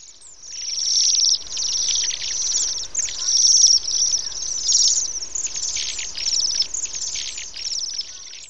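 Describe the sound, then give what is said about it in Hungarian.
A flock of Bohemian waxwings (Bombycilla garrulus) gives high, thin, buzzy trills that overlap almost nonstop, steady in loudness, with no talking. “Csonttollú (Bombycilla garrulus)”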